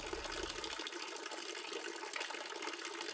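flowing water

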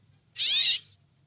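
brambling short call

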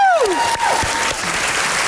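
audience applause

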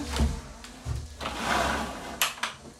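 window being closed

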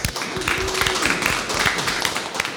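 hands clapping in applause

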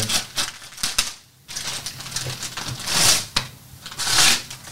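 gift being unwrapped

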